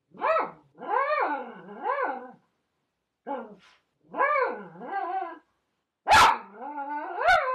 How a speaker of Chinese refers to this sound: 我们家狗乱入了啊啊！它想吃鸡肉，都要说话了。